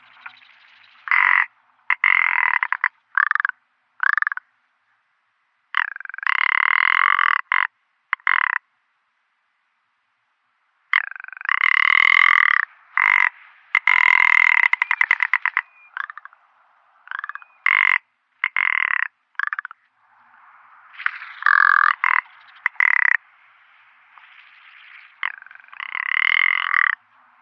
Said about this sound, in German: Das Alpenschneehuhn.